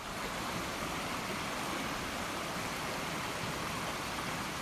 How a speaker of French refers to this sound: mais c'est bien l'eau d'une rivière, l'eau vive qui coule à côté et en vous connectant à cette euh, eau vive, à ce que vous entendez, à votre sens de l'ouïe, vous allez pouvoir me rejoindre sur le bord de cette rivière.